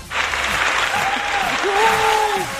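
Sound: applause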